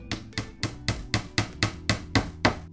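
A neighbour doing DIY on a Sunday morning pounds a hammer nine times in a quick series of sharp blows, the gaps between strikes shifting slightly so the rhythm feels uneven; no voices.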